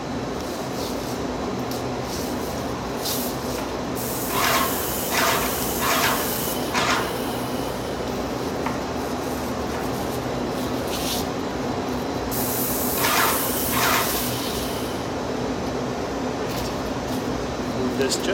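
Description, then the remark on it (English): A steady, loud hiss of a paint sprayer spraying the edges and top of a door runs throughout, with several short bursts of stronger spraying standing out in quick succession, over a constant mechanical hum. “So what I'll do first is uh, we will spray the edges of the door, I'll spray the top”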